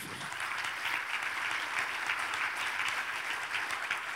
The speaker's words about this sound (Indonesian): Berikan tepuk tangan dulu bagi Tuhan kita.